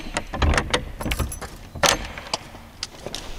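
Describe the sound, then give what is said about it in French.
An old Sartoise door at the entrance to an exhibition in a 300-year-old former paper mill is unlocked and opened: keys jangle, a series of sharp metallic clicks and rattles from the lock, then a louder clunk, with no one speaking. “C'est une vieille porte sartoise”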